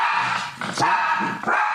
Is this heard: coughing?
no